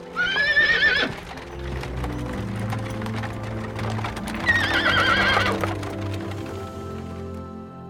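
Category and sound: animal, horse-drawn carriage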